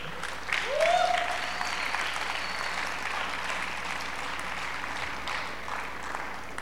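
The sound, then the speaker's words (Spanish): A church audience applauds the Lord during a sermon, a dense, even wash of clapping that holds at a fairly loud level throughout, with a brief rising whoop near the start. “¿Alguien puede aplaudir a su Señor?”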